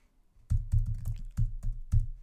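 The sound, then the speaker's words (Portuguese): Rapid keystrokes clatter on a computer keyboard as a very long password is typed to unlock a locked computer, a quick irregular burst of crisp clicks and thumps after a brief pause, with no voices. “Olha, com caraças, meu computador acabou de bloquear Agora vou ter, vou ter que pôr a minha password, que é gigantesca.”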